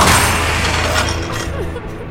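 A door bursts open with a loud, crashing bang, followed by a rough, rattling rumble that stays strong for about two seconds before easing slightly.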